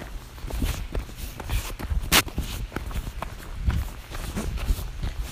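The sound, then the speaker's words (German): Footsteps walking outdoors beside trees and a stream, at the edge of a forest, at a steady, even pace, each step a dull thud with a gritty scuff, continuing throughout with one sharper click partway through; no one speaks. “Ja, ich laufe und laufe und laufe.”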